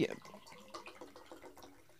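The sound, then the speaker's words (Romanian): Water with gold in it is poured in a short run of splashy glugs, each burst arriving in a loose rhythm, loudest at the start and then settling into softer trickling splashes. “Îți spun puțin, apa, Te aura, rog. e apă cu aur.”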